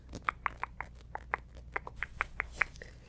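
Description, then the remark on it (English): A squishy s'mores toy with graham crackers and chocolate with marshmallow in between, squeezed over and over for tension relief, giving about a dozen quick, high, rubbery squeaks in an uneven rhythm, with no talking. “He goes, just squish him. Let's do some tension relief with the little s'mores.”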